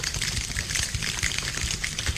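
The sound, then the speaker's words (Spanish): A large choir of at least 60 to 70 people slaps and claps their bodies in a dense, continuous patter of body percussion that convincingly imitates heavy rain, with steady hissing highs and soft thumping lows and no voices. “atención, que cada vez llueve más. ¿Veis? Esto es un gran coro, un coro por lo menos de 60, 70 personas haciendo percusión corporal, música sin música.”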